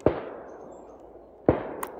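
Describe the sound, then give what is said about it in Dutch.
Two sharp, booming bangs about a second and a half apart, each trailing off in a long echoing rumble: fireworks exploding outside in the middle of the day, around three in the afternoon. “Ik blijf gewoon doorkletsen maar het is gewoon vuurwerk.”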